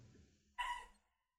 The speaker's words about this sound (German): Äh, sorry übrigens, falls man gerade meinen ähm, Hund im Hintergrund gehört hat. Ja, dem stimmt irgendwas nicht.